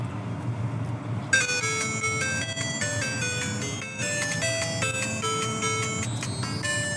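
The Tetris theme: a bright, chiptune-like electronic melody plays in quick stepping notes over a constant low rumble, starting after a second and continuing steadily at moderate loudness with no voices.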